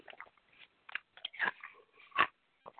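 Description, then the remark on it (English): Loud crunching of a piece of ice being bitten and chewed by a person, a series of sharp irregular cracks and crunches with brief pauses between bites, no talking. “I'm eating a piece of ice.”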